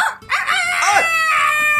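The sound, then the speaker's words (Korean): A person wearing a chicken mascot costume loudly imitates a frantic chicken, letting out shrill, wavering squawks and clucks in a nearly continuous burst while pecking at a man at a samgyetang restaurant. “그래서 미친 닭소리를 내면서 남자를 미친 듯이 쪼기 시작했습니다.”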